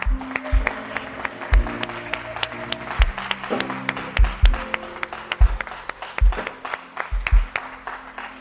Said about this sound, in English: Let's give a clap unto the Lord.